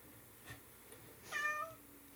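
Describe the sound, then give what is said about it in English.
A single short cat meow rises out of near-silence, fairly soft, with a faint tonal whine trailing off at the end. No one speaks. “It's a cat. Is that a real cat?”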